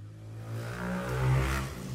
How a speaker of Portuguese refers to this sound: Peraí, passou uma moto aqui, peraí.